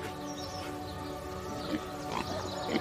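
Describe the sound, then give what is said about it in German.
Pigs grunting in a stall on a traditional farm, a steady jumble of low snorts and grunts with a few louder bursts toward the end, with no voices. “Wenn du genau hinhörst, kannst du Schweine im Stall grunzen hören.”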